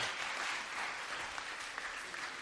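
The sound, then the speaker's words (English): A crowd gives a round of applause for the Holy Spirit, many hands clapping at once in a dense, sustained wash of sound that holds an even level throughout, with no voices standing out. “You guys just give the Holy Spirit a good round of applause.”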